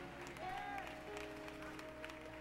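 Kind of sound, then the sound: crowd, audience clapping hands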